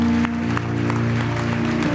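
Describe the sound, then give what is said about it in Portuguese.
A church audience claps steadily in praise to the Lord, with dense overlapping hand claps over sustained, humming musical tones that continue throughout at an even, moderately loud level. “Dá uma grande salva de palmas ao Senhor.”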